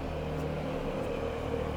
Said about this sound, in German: Jetzt fährt hier noch so ein kleines italienisches Auto vorbei.